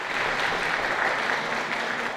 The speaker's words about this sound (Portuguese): Mas agora, o recomeço. E aplausos não faltam para esse guerreiro.